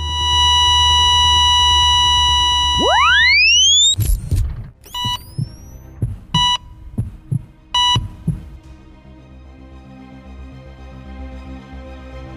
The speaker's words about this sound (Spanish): Con solo cinco minutos, el corazón volvió a latir.